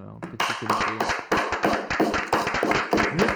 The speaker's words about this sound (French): je, voudrais qu'on, si ce serait bien qu'on s'applaudisse. Euh, oui, applaudissons-nous